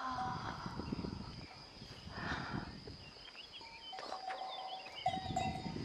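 A flock of sheep with summer-shorn coats in a pen, including a newborn lamb and its ewe, with scattered bleats rising over a steady rustle of hooves and bedding straw, and a faint bell clinking now and then.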